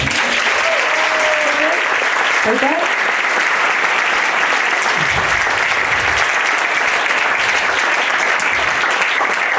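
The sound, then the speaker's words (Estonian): An audience claps steadily and loudly throughout after a performance, a dense continuous wash of applause, with a brief spoken word from a voice partway through. “kallis rahvas, andke palun oma aplausiga märku, kui väga teile meeldis”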